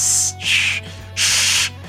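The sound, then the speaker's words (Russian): A voice imitates reptilians hissing like snakes with three breathy, sharp hissing bursts, two quick ones followed by a slightly longer one, fairly loud, with no speech. “Ну, но с рептилоидами мне нравится больше, потому что, знаешь, типа, ну, как мне кажется, рептилоиды, они же, ну, ящеры, типа, они так, знаешь, как змеи такие,”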